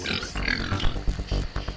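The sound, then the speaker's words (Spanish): Feral pigs grunt and snort in a dense, continuous chorus, with rough low grunts piling over one another, rising and falling in loudness throughout. “Cerdos, cochinos, jabalíes, llámales como quieras a los cerdos salvajes.”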